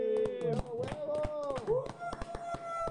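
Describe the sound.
Scattered, sharp hand claps ring out at an uneven pace while drawn-out voices whoop and cheer over them, a small, lively round of applause for a guest.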